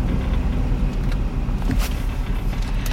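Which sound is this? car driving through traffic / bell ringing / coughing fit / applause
car driving through traffic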